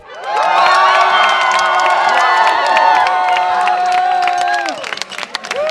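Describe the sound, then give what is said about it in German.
A large crowd erupts in loud, sustained cheering and shouting at an election night party for the Berlin referendum to expropriate Deutsche Wohnen and Co., shortly after 10 pm on a Sunday, as first counts show a majority in favour. Whoops and scattered clapping rise over the din before it breaks into more scattered applause near the end. “Jubel um kurz nach 22 Uhr am Sonntagabend auf der Wahlparty des Volksentscheids Deutsche Wohnen und Co. enteignen.”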